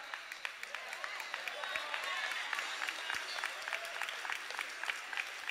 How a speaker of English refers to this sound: Come on, clap even if you don't want to.